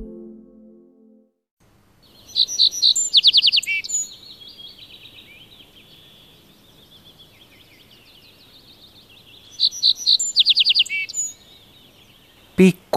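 A little bunting sings two short, high, rapid trilled phrases a few seconds apart, the thin buzzy notes separated by quieter twittering, over a low background hum.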